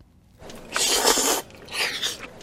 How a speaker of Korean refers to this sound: 면치는 소리군요, 면치기. 어, 국수 먹을 때, 후루룩. 야, 요 소리.